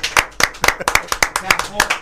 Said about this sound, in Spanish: Un aplauso